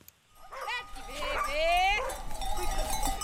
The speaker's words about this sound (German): treibt ihre 300 Schafe einen kleinen Feldweg hinunter. Wie jeden Morgen zwischen April und Januar geht es auf die Weide.